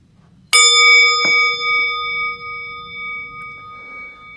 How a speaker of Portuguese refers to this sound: Eu vou convidar o sino a soar daqui a pouquinho